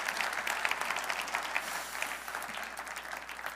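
A church audience applauds steadily for a family, a dense wash of many hands clapping at a sustained, fairly even level with faint crowd murmur underneath, tapering slightly toward the end.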